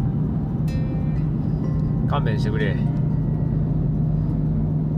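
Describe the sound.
Steady, droning engine hum and low road rumble from inside a moving car driving behind a very slow car ahead, constant and fairly loud throughout, with a man briefly speaking over it midway.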